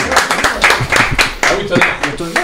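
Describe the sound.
Close, steady hand clapping, a quick run of sharp claps from what sounds like a few people, with voices talking and laughing over the applause throughout.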